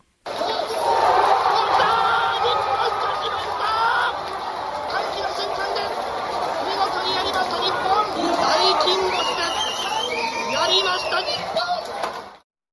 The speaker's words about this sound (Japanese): えー、ワールドカップ日本代表がドイツ相手に勝ったという瞬間のパブリックビューイングのね、えー、大歓声をまずはお聞きいただきました。